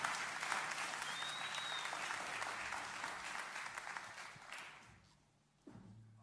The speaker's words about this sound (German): Lassen uns Sie noch einmal willkommen heißen mit einem warmen Applaus.